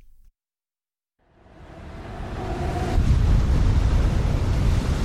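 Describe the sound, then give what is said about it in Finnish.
After a brief silence, a loud, roaring wash of sea and wind swells up and keeps building as high waves lash water over a wooden pier on a November night, a continuous rough surge of waves with heavy low rumble and no voices. “Herään keskellä marraskuista yötä jääkylmältä puulaiturilta, meren piiskatessa korkeilla aalloillaan vettä päälleni, kuin joku tekisi niin isolla kauhalla.”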